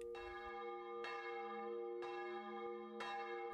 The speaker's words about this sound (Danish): Henderson og jeg har det samme første minde om lyd, om end på forskellige lokationer, nemlig kirkeklokker.